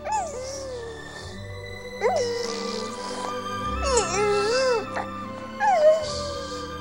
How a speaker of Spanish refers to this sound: ¡Qué cosquillitas! Le hace el gatito cosquillitas con su colita, en su rolliza barbillita. El bebé se ríe, se ríe mucho.